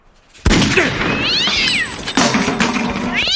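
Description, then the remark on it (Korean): A cat yowls and caterwauls loudly, breaking in abruptly after a moment of quiet with harsh, rising and falling wails that continue without pause. “저런 고양이 새끼야!”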